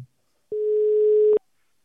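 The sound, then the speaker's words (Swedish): A single steady telephone ringback tone sounds for just under a second while phoning a handball coach, clear and electronic, with silence before and after it. “vi ringer upp eh, eh Jocke, Hallbys tränare”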